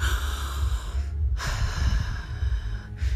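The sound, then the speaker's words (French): A long, airy inhale, then a brief pause and a second shorter breath, soft and hissing with no talking. “bien si ça se présente dans les jours qui viennent, et que vous preniez une grande respiration”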